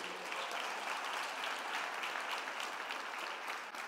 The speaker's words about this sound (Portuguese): Vocês foram? Então dá uma salva de palmas para Deus.